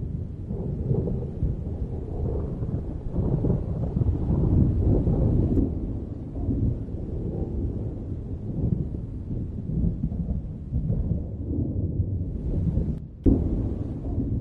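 A thunderstorm: deep, continuous rolling thunder rumbles for the whole stretch, with a steady wash of rain-like noise on top and a sharp crack near the end. No one speaks.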